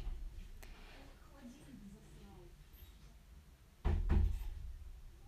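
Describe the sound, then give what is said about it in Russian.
A door is pushed shut with a quick, heavy double thud and a short rattle, standing out loudly after several seconds of quiet room noise. “Это очень хорошо, что закрою дверь.”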